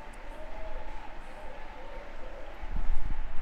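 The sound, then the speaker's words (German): A large crowd cheers and claps in a steady, diffuse roar that swells louder toward the end, with no clear speech on top. “Äh, dem Jubel zufolge haben wir vielleicht doch das Ende vom Darmdoppel verpasst.”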